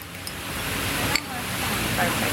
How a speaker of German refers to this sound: Laut brummend spritzt der Wassersprinkler Sprühnebel auf die Terrasse des Bandol-Cafés in Núñez, einem Viertel im Norden von Buenos Aires. Etwas Kühlung in der Hitze des südamerikanischen Hochsommers.